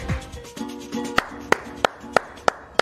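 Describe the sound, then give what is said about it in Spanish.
Slow, deliberate applause: about six sharp, evenly spaced hand claps roughly a third of a second apart, following a short stretch of low humming, tonal sound; the claps are dedicated to fans of the Mexican national team. “Este aplauso no, no es para la selección mexicana.”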